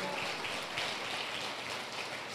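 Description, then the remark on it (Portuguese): A church audience claps steadily together for the Lord Jesus, welcoming first-time visitors, a dense, even wash of applause that holds at a constant level for the whole moment, with no voices standing out. “Isso, aplauda o Senhor Jesus.”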